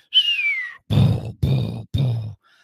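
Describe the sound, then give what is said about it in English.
A voice imitates bombs going off during a rocket attack: a falling whistle, then three loud, rough booming bursts in quick succession, alone, with no other talk. “we end up getting rocketed like a oh. bunch of bombs just start going off. It's like I hear,”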